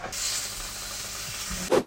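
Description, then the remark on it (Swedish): Small Swedish pancakes (plättar) frying in a pan give a steady hissing sizzle that runs unbroken for nearly two seconds, ending with a brief louder knock or scrape. “Ja, och så börjar jag, så steker vi plättarna.”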